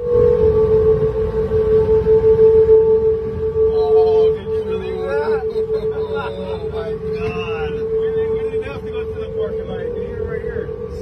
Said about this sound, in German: hier in den vergangenen Wochen ein neues Geländer angebracht wurde und die Ingenieure haben den Wind nicht einberechnet. Und deshalb hat die Golden Gate Bridge ganz mysteriös angefangen zu summen, zu singen und apokalyptische Töne von sich gegeben.